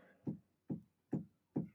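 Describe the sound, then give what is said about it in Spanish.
A cat pushing a door repeatedly so it thumps against its frame: four dull, evenly spaced knocks in quick succession, muffled, with no voices. “No, mi, mi gato es la, mejor, el mejor truco que tiene, lo odio es empujar la puerta, no es rajuñar.”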